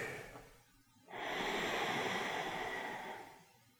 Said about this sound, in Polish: Wdech